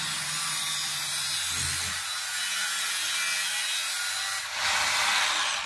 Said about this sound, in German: So, alles durch? Auf der anderen Seite? Nee, noch nicht ganz. Ich muss mal noch die andere Seite flexen.